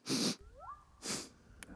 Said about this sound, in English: In fact, just by sniffing it, you've now made your penis like half an inch thinner.